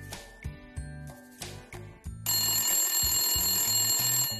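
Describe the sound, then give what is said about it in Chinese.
A telephone rings in quick repeated bursts, then gives way to a steady, bright, high ringing tone that continues to the end. No one speaks. It is Police Chief Poli's phone in the cartoon, ringing nonstop. “泡里的电话响个不停。”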